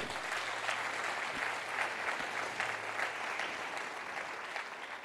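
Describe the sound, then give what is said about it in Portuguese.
A church audience applauds God steadily, the dense crackle of many hands clapping holding at an even level for several seconds with no one speaking over it. “Aplaude ele, aplaude.”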